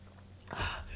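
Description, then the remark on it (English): A single quick sip of a drink: a soft, brief slurp of mouth and liquid noise lasting under a second, with no talking. “Let me take a quick sip.”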